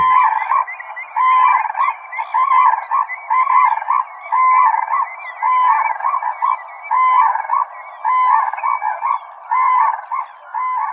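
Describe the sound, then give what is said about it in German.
A red-crowned crane calls over and over in loud, trumpeting bursts, the harsh, resonant notes coming in a steady, nearly unbroken rhythm with no voices present. “Und vielleicht passt da auch ganz gut der Ruf des Mandschurenkranichs, denn der ist auch ein bisschen so.”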